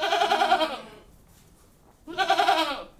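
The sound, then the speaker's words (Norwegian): Two loud, nasal goat bleats, each lasting just under a second and separated by a short pause of near silence. “Nærmere bestemt så bestemte han seg for å være en geit.”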